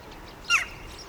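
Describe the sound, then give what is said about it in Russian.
A single short, sharp jackdaw call rings out once in a city, at a large green area beside a sports complex where jackdaws search the ground and grass for food, standing out briefly against a quiet, steady outdoor background hiss. “Сейчас мы видим галок, и к ним подлетела большая черная птица – это грач.”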